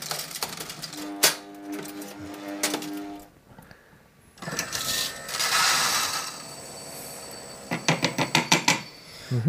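Small ceramic espresso cups clink and rattle in bright, ringing taps, first scattered, then a quick run of clinks near the end, with a steady espresso machine pump hiss and hum in between.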